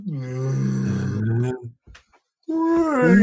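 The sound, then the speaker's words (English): A person imitates whale mating calls: two long, low, moaning vocal tones with wavering, sliding pitch, loud, separated by a short gap. “whale mating calls.”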